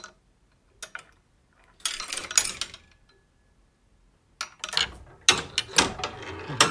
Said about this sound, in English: he was sitting down there in the afternoon or in the evening and turned on all the clocks in his room, and he had like I don't know 15 or um, I forgot and he just sits there and listens to the concert of clocks.